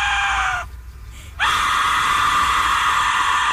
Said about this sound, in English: Oh, they're making that from the bones. Literally just blowing into like a like a what would be a skull. Like blowing into a skull basically can make that noise.